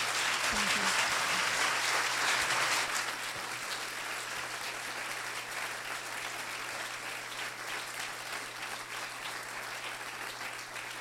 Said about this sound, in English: Can we give Isha Sesay one more huge round of applause?